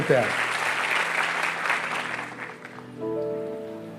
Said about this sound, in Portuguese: Que Ele nos abençoe. Vamos aplaudir a Ele.